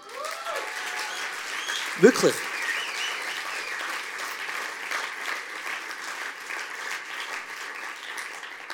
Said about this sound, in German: Er ist ein unglaublich guter Pastor und ich würde sagen, wir müssen ihm immer einen Applaus geben.